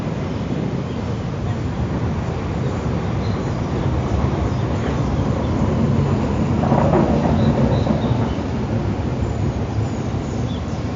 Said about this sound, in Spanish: Entre bailarines y practicantes artísticos rodeamos el camino hasta el bloque 26, donde empezamos a sentir la brisa característica del área de las piscinas y se hace notable el sonido del tren sobre los viaductos del metro.